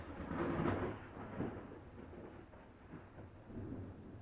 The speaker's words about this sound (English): this rainy weather and the thunder is very fitting for our podcast